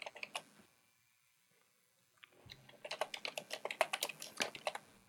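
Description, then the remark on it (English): Loud computer keyboard typing: a few clacks, a short pause of near silence, then a rapid burst of sharp, irregular keystrokes. No one speaks. “With you and your loud keyboard.”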